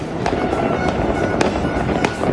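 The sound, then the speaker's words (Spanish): Fireworks crackle and pop continuously over a dense, roaring background, with repeated sharp bangs scattered irregularly throughout, a sustained celebratory barrage in Naples with no speech. “Ahí los fuegos artificiales.”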